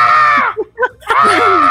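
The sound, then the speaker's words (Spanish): A person lets out two loud, drawn-out, theatrical screams, separated by a brief pause filled with short vocal sounds, filling the whole moment. “es que, no es el grito, porque, ok, puedes gritar, pero siento que es, no, algo tiene su grito que es como, ay, no sé.”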